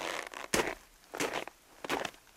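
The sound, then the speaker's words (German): Crunching of crusted snow underfoot, three distinct crisp, gritty crunches at a slow, even pace with brief pauses between them and no voices. “Oder das hier, das Geräusch von haschem Schnee.”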